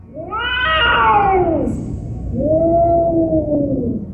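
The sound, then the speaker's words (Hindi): A large cat yowls eerily outside a flat, beside its front door, in two long, drawn-out wails, the first rising and bending down in pitch, the second lower and steadier, loud, with no one speaking. “उसी दरमियान एकदम से एक बड़ी डरावनी सी बिल्ली की रोने की आवाज़ आने लगी”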